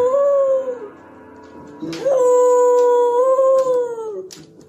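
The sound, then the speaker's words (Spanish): A female dog howls, singing, in two long, drawn-out notes, the first brief and the second sustained for a couple of seconds, its pitch sliding gently up and down. Fairly loud. “No, chulada de perra ya.”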